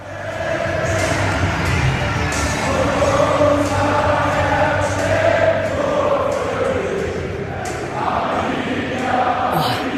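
A packed football stadium roars with sustained crowd cheering, a dense, continuous wash of voices that swells and surges throughout, with occasional louder shouts rising above the steady din.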